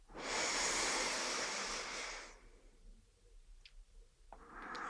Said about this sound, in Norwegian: Kanskje du tar en liten pause her, og så tar du et godt innpust til.